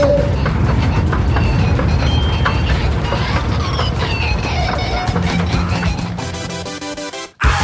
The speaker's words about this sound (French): t'en prendras un autre avec des roues en fer et qui sera électrique. Ça s'appelle un train. Et quand tu vas sous terre, ça s'appelle le métro.